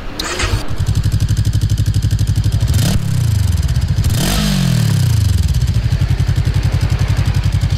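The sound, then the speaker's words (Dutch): A fairly new motorcycle with a standard exhaust cranks and catches, settling into a loud, steady, chugging idle, with two quick throttle blips that rise and fall before it returns to a rhythmic idle. “Start hem eens, we laten eens horen hoe een voken klinkt.”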